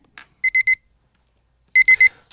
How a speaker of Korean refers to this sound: 486이라는 번호로 삐삐가 들어왔길래 확인을 했는데